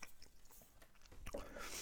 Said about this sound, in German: entschuldigt bitte da draußen, wenn ich hier schon wieder am Schmatzen bin, aber ich habe natürlich wieder ein bisschen Hunger.